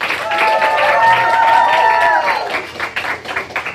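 An audience bursts into loud applause welcoming a teacher as a guest, a dense patter of many hands clapping with some cheering voices mixed in, then the clapping thins out and tapers off toward the end.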